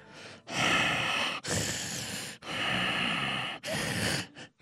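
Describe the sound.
A voice mimics heavy, snorting breaths: four long, loud, rasping huffs in quick succession and a short final puff, with no speech.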